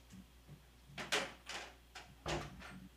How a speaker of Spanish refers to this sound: Miren, antes que nada tengo que cerrar la puerta.